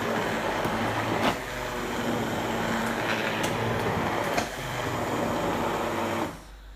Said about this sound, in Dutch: Bij mij staat de staafmixer in de pan en ik ga hem aanzetten. Het kan wellicht wat herrie veroorzaken.